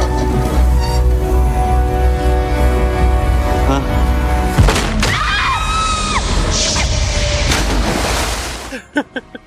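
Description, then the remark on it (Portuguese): Cannon fire from a pirate movie scene: a sharp, loud bang cuts through a dense, rumbling soundtrack, followed by whistling tones and a few short thuds as the scene fades. “No nosso dialeto é apenas disparem, canhão.”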